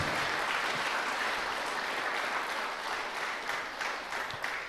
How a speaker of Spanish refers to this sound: Y aquí desde Cochabamba, Bolivia, les mandamos un fuerte aplauso a todos ustedes de alegría, de bendición. Amén.